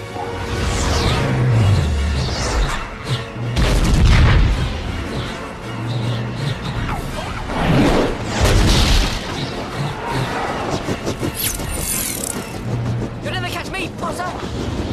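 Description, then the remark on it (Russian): Driving orchestral film score for the Quidditch match scene of a Harry Potter film, in which Harry is chased by a rogue Bludger as he and Draco Malfoy try to catch the Snitch. It plays loud and continuous beneath whooshing flybys, heavy booms and a few voices calling out across the fifteen seconds. “Вот одна из ключевых сцен — матч по квиддичу, в котором Гарри преследует взбесившийся Бладжер, и они с Драко Малфоем пытаются поймать крылатый мячик Снич.”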